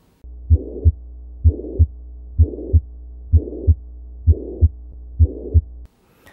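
A pansystolic heart murmur of mitral regurgitation, loudest at the apex and radiating laterally to the axilla: six steady heartbeats, each pair of dull thumps bridged by a continuous blowing whoosh, heard through a stethoscope with no talking.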